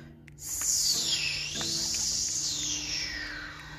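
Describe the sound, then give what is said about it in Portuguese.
A steady whistling hiss of wind rises in after a moment and carries on, its airy pitch sweeping down and back up, fairly loud with a faint low hum beneath. “Ouviu-se um silvo.”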